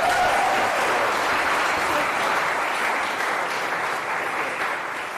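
Sustained audience applause, a dense, steady wash of many hands clapping at a loud, even level for the full five seconds, easing off only slightly toward the end.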